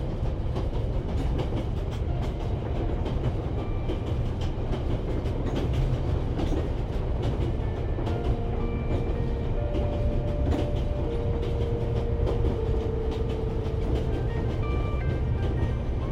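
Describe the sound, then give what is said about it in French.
A train carriage rolls steadily along the rails with a continuous low rumble, faint rhythmic clicks of the wheels and occasional soft metallic squeals, heard from inside the car with no talking. “le roulis du train apporte une détente bienfaisante sur votre corps, qui se relâche et se calque sur son mouvement.”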